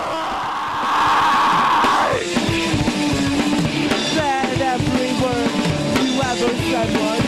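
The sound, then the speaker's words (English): A loud, harsh screamed vocal with fuzzy, clipped distortion, the singer holding the mic close to the mouth while screaming, holds for about two seconds, then drops into a full rock band playing with driving drums and guitars. “These bands all do this thing where when they scream, they put the mic closer to their mouth.”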